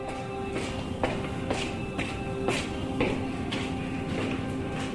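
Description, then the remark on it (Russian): Steady footsteps climbing 50 stairs in an apartment building, about two per second in an even rhythm, each step a clear, moderately loud tap over a continuous background hum. “Хорошо, Значит, есть еще время в 50 ступеней.”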